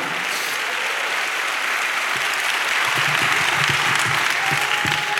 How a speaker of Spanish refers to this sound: Dele un fuerte aplauso a Cristo, hermano.